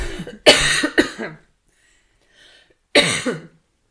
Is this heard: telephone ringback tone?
no